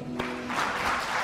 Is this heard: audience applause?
yes